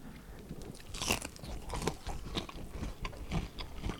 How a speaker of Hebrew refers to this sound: אני גם אוכל רגע אחד, כזה.